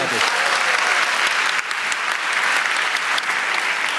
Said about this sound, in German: Das ist richtig. Applaus.